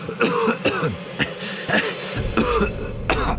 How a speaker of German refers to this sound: Er hat ein Kratzen im Hals gehabt, ein das er nicht mehr weggebracht Ein kleines ein Räuspern oder ein Husten war immer mit ihm und nie mehr weggegangen.